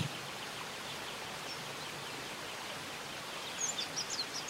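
A steady, even rush of falling water fills the whole scene, with a few high, quick bird chirps breaking through near the end. No one speaks.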